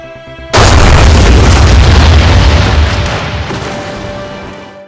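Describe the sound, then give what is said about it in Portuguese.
A massive ship explosion, the Bismarck's gun salvo hitting a cruiser's ammunition magazine and splitting the cruiser in half, erupts suddenly after a low hum: one loud, deep boom that rolls on into a long, heavy rumble, fading slowly over several seconds. No voices. “da salva de canhões, o Bismarck acertou o paiol de munições do Rude, provocando uma grande explosão.”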